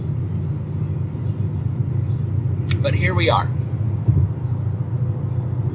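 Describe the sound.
Steady low rumble of road noise inside a moving car fills the whole recording, constant and fairly loud, with a voice speaking briefly over it.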